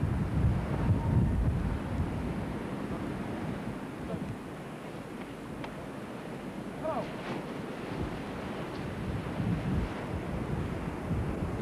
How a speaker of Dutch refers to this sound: Well, if you look at the rough waves here, it will even be impossible to get out of there. it's, it's even rough there or more rough, you think? It can be much rougher out there. It's and the open sea, sir.